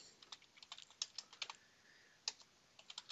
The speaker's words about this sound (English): All right, I'll, I'll type him a message to call me